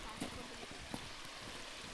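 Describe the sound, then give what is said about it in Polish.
A steady, even rush of water flowing from a large puddle, like a small stream running continuously, fairly quiet and unbroken, with a couple of faint brief knocks near the start. “O, Ale kałuża. Cała rzeka płynie.”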